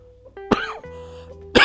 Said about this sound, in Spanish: Ay, ustedes disculparán, tengo muchísima tos que no se me ha quitado.